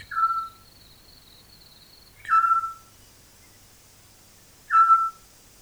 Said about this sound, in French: C'est un hibou, pas plus grand qu'un merle. Il vit dans la nuit, il dort pendant la journée. pas toujours. Parfois, ils se parlent entre eux, la mère et le père. À peine perceptible, très doucement, pour être sûr que l'autre est toujours là.